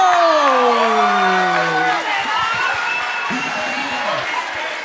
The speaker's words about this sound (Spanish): ¡Vamos, un aplauso!